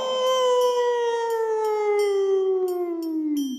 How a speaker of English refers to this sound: And this also must be why it causes wolves to howl at the moon, right? Huh? Wrong. That's just a myth.